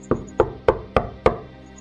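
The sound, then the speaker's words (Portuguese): Five firm knocks on a wooden bedroom door in a steady, even rhythm, fairly loud, with no voices present. “Eu vou bater na porta, pergunto se tá tudo bem.”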